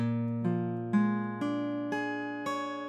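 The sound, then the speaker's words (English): A B flat 7 sharp 9 chord rings out, struck six times in an even, steady rhythm at moderate volume, each attack sustaining into the next with no voices present. “But a B flat 7 sharp 9 chord sounds like this.”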